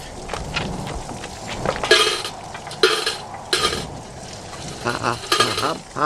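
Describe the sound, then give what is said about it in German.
Scattered metallic clinks and scraping rustles as a person's dropped coins, their whole day's takings, are gathered up by helpers, with several sharper jingling bursts over a steady shuffling background. “Das Geld ist Ihnen runtergefallen.”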